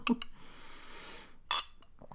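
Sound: glass clinking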